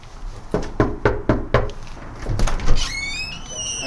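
Five sharp, evenly spaced knocks rap on a front door, fairly loud, followed by a brief clatter and then a high, squeaky chirping tone.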